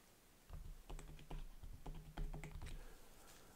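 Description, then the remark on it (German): Rapid keystrokes on a computer keyboard as keywords are typed into a large white text field, a steady run of crisp clicks lasting a few seconds with no voices. “Im großen weißen Textfeld können entsprechend der vereinbarten Regeln beispielsweise Schlagworte mit der Tastatur eingegeben werden”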